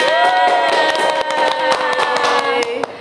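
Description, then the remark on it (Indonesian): A group applauds loudly and steadily, many hands clapping in a dense, continuous patter for about three seconds, with a sustained musical tone running underneath. “Tepuk tangan semuanya.”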